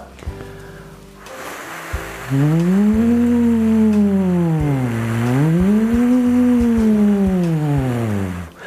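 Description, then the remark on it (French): A single voice holds a steady tone and slides its pitch up and down in slow, wave-like swoops, imitating a small siren as a vocal exercise, for about six seconds without pausing. “Pour les plus courageux d'entre vous, mettez encore la vidéo une nouvelle fois en pause et refaites trois fois l'exercice en faisant comme ça des petites sirènes.”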